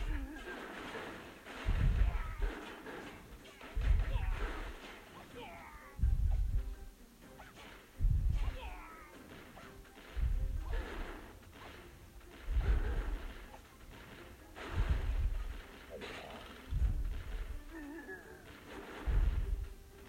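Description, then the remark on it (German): Two video game cannons fire again and again, about ten deep, booming shots spaced roughly two seconds apart, over a busy layer of background game noise. “Okay, die beiden Kanonen, die werfen. Die ballern den gerade ab.”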